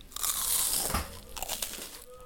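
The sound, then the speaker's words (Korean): Crisp crunching as someone bites into a traditional Korean hangwa confection that they made themselves, a dense run of brittle crackles lasting about two seconds, fairly loud with a few sharper snaps toward the end and no talking. “우리 전통 과자를 많이 먹고 설 명절들 잘 보내세요.”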